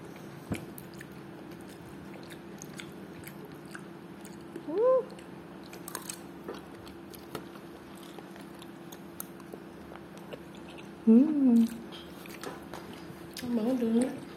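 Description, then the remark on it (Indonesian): Soft, wet chewing of saikoro diced beef, with faint irregular clicks and smacks over a steady low hum, broken by a few short hummed murmurs. “Baru kali ini aku nyobain saikoro.”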